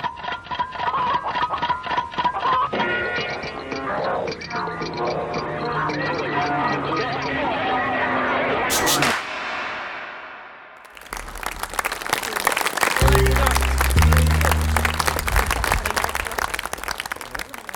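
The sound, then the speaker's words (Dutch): Loud, dense audience applause at the end of the theatre performance Bram, staged in June 2023 at Oerol: a steady wash of many hands clapping for several seconds, after a stretch of voices and tonal sounds that fades out. “Je hoort hier het einde van de voorstelling Bram, die in juni 2023 op Oerol speelde en waar ik meewerkte aan het vooronderzoek.”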